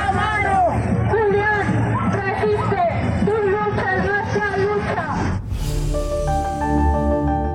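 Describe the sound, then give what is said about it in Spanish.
Hundreds of protesters on bicycles in the streets of Mexico City chant "resiste" in unison in defense of Julian Assange, their voices rising in a repeated rhythmic call over dense outdoor hubbub, before the chanting cuts off and steady tonal music takes over near the end. “Ahí escuchábamos cómo al grito de resiste, cientos de manifestantes en Ciudad de México salieron en sus bicicletas a las calles”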